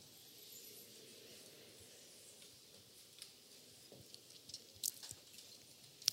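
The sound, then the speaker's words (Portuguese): Someone quietly drinking grape juice, with soft sips, swallows and small wet mouth clicks over a hushed background, ending in a couple of sharper gulping sounds. “Aí eu vou beber água porque secou a garganta. Vou beber aqui suco de uva.”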